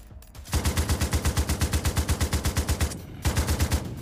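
sound effect, machine gun burst

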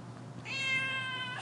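animal, cat meowing

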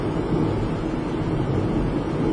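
vehicle, car interior

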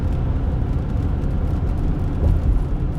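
vehicle, car driving

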